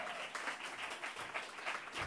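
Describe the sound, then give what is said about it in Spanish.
Steady crowd applause for Raimi Gugiari and his thought gatherings. Many hands clap in a dense wash at an even, moderate loudness for the whole stretch, with no voices on top. “Este es el aplauso para Raimi Gugiari y sus tertulias de pensamiento.”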